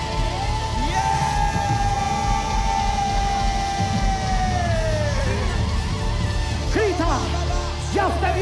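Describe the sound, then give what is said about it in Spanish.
A large crowd shouts and cries out together in a loud, sustained roar as the speaker urges them to shout, many voices overlapping continuously with some higher yells rising above the din. “Dice el Espíritu de Dios, hoy te entrego tu casa. ¡Vamos! Grita, grita, grita.”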